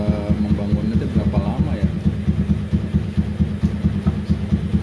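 A motorcycle engine runs steadily at idle, its low, rhythmic throbbing loud and continuous throughout, with faint voices briefly audible underneath.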